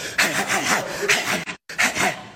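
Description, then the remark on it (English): A voice imitates a fighter's rapid punching breaths: forceful hissing puffs in a quick steady rhythm, breaking off for a split second before resuming. No talking. “That's a nigga making that noise with his mouth, and if you fall for it, that's you.”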